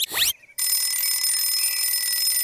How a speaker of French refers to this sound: Enfin, son réveil donne le top départ.